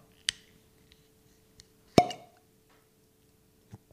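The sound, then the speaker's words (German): A cork pops out of a whisky bottle with a loud, hollow plop, preceded by a sharp little click and followed by a faint tap. No one speaks. “Das war schon amtlich. Gutes Ploppen.”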